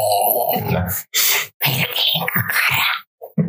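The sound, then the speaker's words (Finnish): A voice imitates the ragged, rattling breathing of a person on a ventilator, with a series of harsh, raspy gasps and groaning bursts broken by short pauses, loud. “Voit sitten miettiä sitä, kun mä korisen hengitys, hengityslaitteessa”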